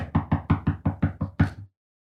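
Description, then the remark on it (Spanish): A rapid run of about eight knocks on a bathroom door, evenly spaced, with the final knock landing a little harder before it falls silent. “Todo el día te tocaban la puerta al baño.”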